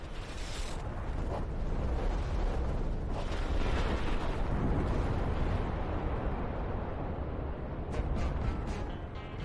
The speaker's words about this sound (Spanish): La explosión de estas bombas atómicas en este escenario paradisíaco